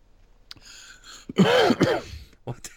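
A loud throat-clearing burst followed by a short harsh cough, with a few softer breathy sounds before and after, as a man clears his throat after a sip of water before singing.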